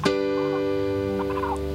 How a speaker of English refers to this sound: So this is called a first inversion. Okay? Now if we go to a second inversion, it's going to sound like this.